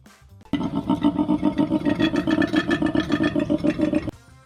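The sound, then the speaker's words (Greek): A male koala bellows loudly for about three and a half seconds, a deep, rasping, rhythmically pulsing drone of snore-like grunts, with no talking over it. “Λοιπόν, αυτό που μόλις ακούσατε ήταν ένα αρσενικό κοάλα.”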